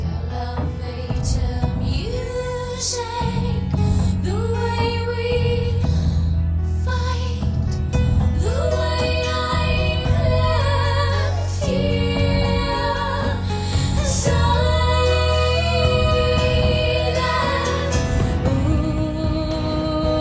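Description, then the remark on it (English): A song plays at full volume for about twenty seconds, with sustained melodic tones, a steady low bass line and regular percussive hits, continuous. “And the song sounds like this”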